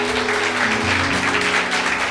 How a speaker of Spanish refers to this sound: Si puede darle palmas, dele palmas al que vive. Aleluya.